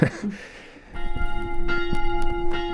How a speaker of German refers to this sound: Und ja, wenn die Hagspieler, das ist eine Überlieferung, wenn die Hagspieler einmal eine Kapelle bauen, dann können sie das Glöcklein in die Kapelle hängen und dann von da ins Land hinaus läuten.